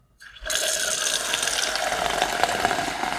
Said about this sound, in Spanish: Y además te voy a hacer sonar esto que ya es un clásico de este programa, que es el sifón que viene eh, frío desde mi ladera, directo a los estudios de Futurock y suena así.